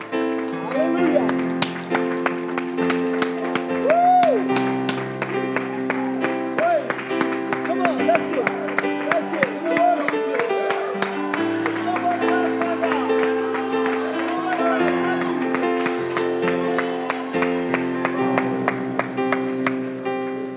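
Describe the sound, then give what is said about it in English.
An audience in church claps steadily and loudly for about twenty seconds, giving the Lord a hand clap of praise, many hands together over sustained organ-like music, with voices calling out beneath the applause. “Why don't we give the Lord a hand clap of praise right now?”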